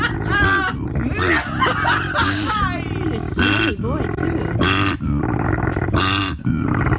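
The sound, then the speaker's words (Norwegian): A koala bellows loudly, a rapid series of deep, rasping grunts and snorting roars that continue almost without pause for several seconds. “Altså, vil dere virkelig høre hvordan en koalabjørn høres ut?”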